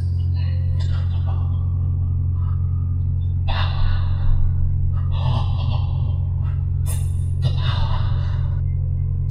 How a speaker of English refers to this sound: Every limb stiffened and twitched. His breathing became ragged.